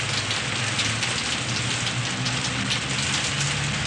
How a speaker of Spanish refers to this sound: mira la lluvia a través de la ventana y limpia el cristal con una mano.